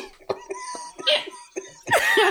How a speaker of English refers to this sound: This takes a little bit of effort and makes … grunt.